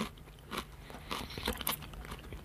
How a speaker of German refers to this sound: So, Moment, ich mach kurz Pause mit Essen.